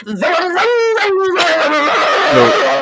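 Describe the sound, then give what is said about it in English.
A person imitates with their voice a loud car engine being revved while stopped at a stoplight, a continuous buzzing, rising and falling growl that surges up in pitch a few times over about three seconds, loud. “so in this context they are intentionally revving their engines but they're at a stoplight or something they're not going anywhere”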